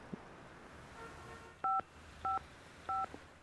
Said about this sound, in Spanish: ¿Por qué suena como que yo estoy llamando?